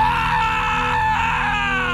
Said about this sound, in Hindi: कुछ बल्ब फूटने लगे और थोड़ी ही देर में वहां अंधेरा छा गया तब मुझे उस लड़के के चिल्लाने की आवाज आई